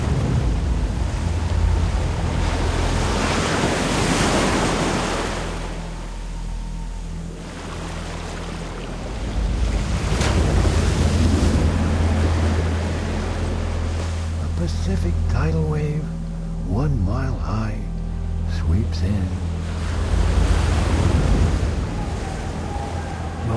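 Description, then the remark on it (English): Heavy ocean waves of a Pacific tidal wave surge and crash in a continuous roar, swelling and receding every few seconds with a deep, rumbling, wind-blown wash. “A Pacific tidal wave. One mile high.”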